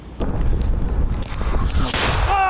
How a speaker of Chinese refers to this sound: 一枚炮弹直接在面前爆炸，惊险逃过一劫的第三突击旅官兵一边喘气，一边寻找掩护，躲避俄军的第二波攻击。